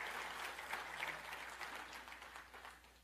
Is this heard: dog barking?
no